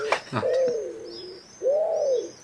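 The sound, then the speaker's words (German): A wood pigeon gives an alarm call: a short breathy onset followed by two long, low, arching coos around a quiet gap, fairly loud with no talking. “Das ist die rufende Ringeltaube. Das ist ein Alarmruf.”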